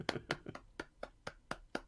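One person claps hands alone, clapping for themself as the rest do not join in: about eight sharp claps at a brisk, steady pace, each a crisp slap with no voices in between.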